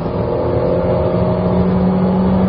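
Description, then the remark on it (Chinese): A Changan car's engine revs hard at high rpm during a test drive. It is a steady, loud, droning roar with a sustained tonal whine that holds through the whole stretch without pause; no one speaks. “和之前试驾过的一些长安车型一样，这台发动机在高转速情况下也保持了一个比较好的稳定性。”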